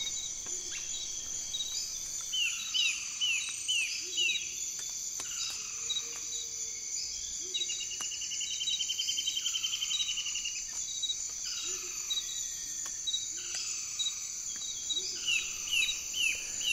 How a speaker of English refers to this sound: And as I've listened to the Earth, I've noticed that the tropics are very loud. If we listen to the Amazon, for example,